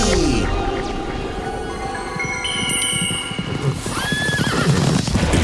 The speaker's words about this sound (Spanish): El caballo de la otrora estrella del circo entró desbocado al lugar, reconociendo de inmediato a su amo.